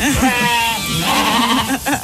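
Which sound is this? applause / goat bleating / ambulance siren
goat bleating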